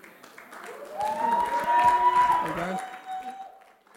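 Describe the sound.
An audience claps in a steady patter that swells to its loudest midway, then tapers off, with a held, singing-like voice rising over the applause.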